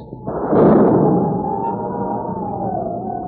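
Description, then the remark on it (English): A deep, rolling rumble of thunder swells in suddenly and lingers for a few seconds, loud and sustained, fading only slightly, with no one talking over it. “Could that possibly be thunder? It sure sounds like a storm coming up”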